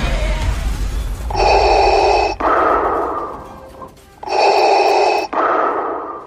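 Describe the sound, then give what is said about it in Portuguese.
Slow, heavy mechanical breathing through a respirator, the breathing of Darth Vader from Star Wars: two full cycles of a hissing, tonal inhale followed by a rasping exhale, loud with no voices. “O icônico respirar de Darth Vader, por exemplo, tornou-se uma marca registrada do vilão, reforçando sua presença ameaçadora e enigmática.”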